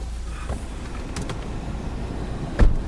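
A car drives out to the Femern construction site with its windows down, with a steady low engine and road rumble plus wind noise. There are a few brief clicks and a louder thump near the end.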